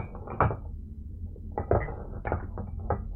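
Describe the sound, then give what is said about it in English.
Dishes in a kitchen clink and rattle as they shift, in a handful of irregular clattering bursts over a low, steady background rumble, with no voices. “You hear dishes in the kitchen shifting.”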